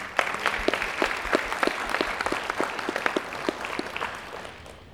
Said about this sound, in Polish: I tu wielkie brawa dla Was. Dziękujemy.